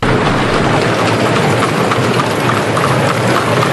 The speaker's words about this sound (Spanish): Escuchen, este es el sonido del año 1890. El Paseo de la Castellana se llamaba entonces Paseo de las Delicias de la Princesa y así es como sonaba. Por todo su ancho circulaban al mismo tiempo carruajes tirados por caballos y caminantes.